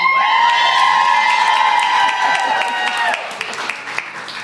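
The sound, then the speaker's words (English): A room full of women at a Portland retreat cheers loudly for Augie, who is four-legged, with high-pitched whoops and shouts layered together with scattered clapping, the burst sustained for a few seconds before tapering off. “Yeah, it should be noted that Augie gets the biggest cheers.”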